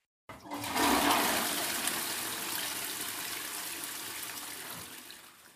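A toilet flushes with a sudden loud rush of water that peaks right away, then slowly tapers into a steady draining hiss. No one speaks.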